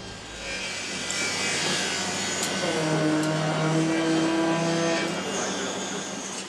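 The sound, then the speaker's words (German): Steady, dense ambience of one of Germany's largest construction sites, on Heidestraße north of Berlin Hauptbahnhof, where a building over 500 metres long is going up: a continuous wash of machinery noise with droning engine tones and whining motors, plus faint scraping and sawing textures, no voices. “Eine der größten Baustellen Deutschlands.”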